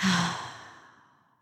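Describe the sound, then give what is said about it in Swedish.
A single deep exhale through the mouth, breathy, starting with a faint voiced sigh and trailing off gradually into quiet over about a second and a half. “djupt andetag och andas ut genom munnen.”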